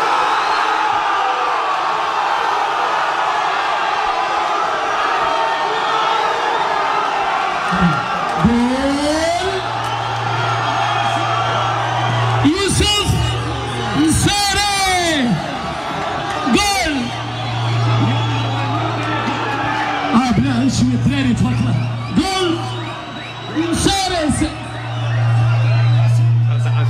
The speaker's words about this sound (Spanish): Esa es la fiesta en Parla, en el Sultán de Parla. Decenas, cientos de marroquíes gritando el gol de Nesiri